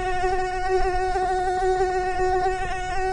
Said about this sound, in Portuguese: É um negócio que incomoda, né? Mosquito.